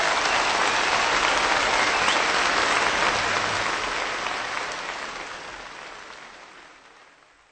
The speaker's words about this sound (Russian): Сначала вы слышали музыку, затем аплодисменты, реакцию слушателей, награду музыканту.